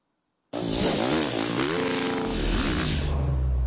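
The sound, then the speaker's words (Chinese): A high-pitched Red Bull Formula One race car engine, driven by Daniel Ricciardo in Australia, roars in abruptly as the car sets off from the desert and sprints alongside a helicopter. It revs hard, its pitch sweeping up and down through gear changes before settling into a steady, loud drone. No voices are heard. “从蛮荒沙漠出发，F1 赛车发挥极限，与直升机近距离同步冲刺，看得让人血脉喷张。”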